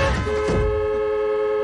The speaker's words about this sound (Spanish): Al poco cruza raudo y un coche frena.